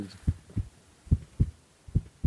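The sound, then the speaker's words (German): A steady heartbeat heard through a stethoscope: three paired lub-dub thumps, deep and muffled, evenly spaced over a faint low hum, with no talking. “primär ist es mal ein diagnostisches Mittel für Lunge, Herz und, und Bauch. Da hört man immer drauf.”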